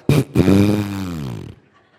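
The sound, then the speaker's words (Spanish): A fart sound: a brief sputtering pop, then a longer buzzy, brassy blast that slides slightly downward in pitch and stops after about a second, loud with no talking. “Si cuando los punes salen, generalmente lo hacen de forma muy alegre, juguetona, como aplausos.”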